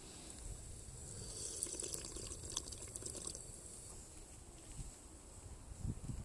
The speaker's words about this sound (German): Ich nehme mal einen Schluck hier aus diesem Wasserspender, finde ich sehr toll.